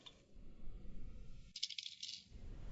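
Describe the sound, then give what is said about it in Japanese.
A die rattles and clatters for a couple of seconds, a busy shaking sound with a few sharper clicks in the middle before it settles, landing on six. “お、6だ。ああ6だよ。えーと、6が出ました。”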